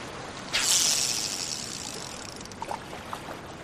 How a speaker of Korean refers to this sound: 그녀는 어설픈 동작으로 낚싯대를 들어 올려 등 뒤로 넘기더니 줄을 던지는데 미끼가 그녀의 배에서 몇 미터 떨어진 곳에서 물을 튀기며 잠긴다.